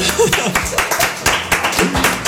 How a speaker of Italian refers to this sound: si sente che stanno mangiando. Il nostro pubblico sta sgranocchiando.